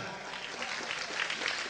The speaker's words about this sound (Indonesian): Tepuk tangan.